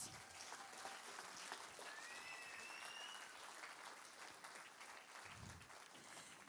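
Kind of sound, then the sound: crowd, audience applause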